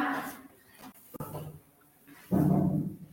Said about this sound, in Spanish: Y aquí tengo un perrito que no me deja en paz.